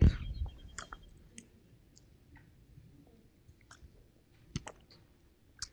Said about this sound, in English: They didn't say I couldn't drink water. Okay.